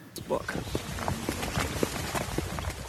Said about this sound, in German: Wir hören Schritte von drei Männern und einer davon, das ist mein Kollege